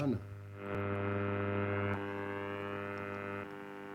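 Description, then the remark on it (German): An old valve radio with a magic eye tuning indicator gives off a steady, droning electrical hum with a brief sweeping warble at the start, like the dial being turned between stations, still in a range where only hum comes through and the magic eye does not yet move, with no music or voices. “Das magische Auge bewegt sich noch nicht. Wir sind noch im Bereich, wo nur Gebrumme ist.”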